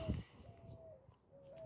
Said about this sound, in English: There are blackbirds over there squealing, screeching, squawking, screaming in the background, bleeding through them.